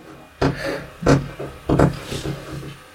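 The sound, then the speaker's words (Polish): A cat working at a door, making a series of sharp, irregular thumps and rattles, three louder knocks followed by softer clatters, with no one speaking. “No, o to, te dźwięki to kot otwierający drzwi.”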